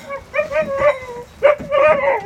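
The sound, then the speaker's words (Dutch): Dogs bark and whine up close in a couple of drawn-out, high-pitched bursts, with a short pause between them and no one talking. “Ja, ja, we gaan de honden erbij halen.”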